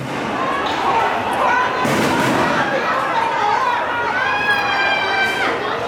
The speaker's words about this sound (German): Schüsse, Tumult und Geschrei hören wir da. Ja, es gab Ausschreitungen. Diese Proteste 2019 und 2020 in Hongkong, die waren nicht nur groß, sie waren dann eben zum Teil auch recht brutal.